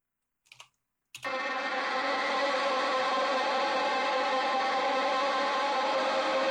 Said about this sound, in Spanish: Entonces, a ver, por aquí tenemos, déjame ver, guitarra eléctrica. Para el final, chequense la guitarra solita y luego se las pongo en contexto, pero a lo mejor solita les va a sonar rara.